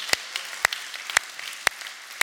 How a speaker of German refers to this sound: Glaubst du das? Oh, komm on, lass uns Jesus mal einen Applaus geben, wenn du das glaubst.